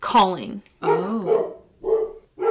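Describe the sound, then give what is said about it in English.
Dogs bark in a few loud bursts spaced through the moment, with a person briefly speaking in between. “Sorry about the dogs.”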